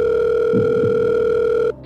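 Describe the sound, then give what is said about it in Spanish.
A steady, continuous telephone dial tone of an outgoing call hums loudly for nearly two seconds as a number is dialed, with a brief low rustle partway through, then cuts off abruptly. “Adelante, marquemos el número de Rafa”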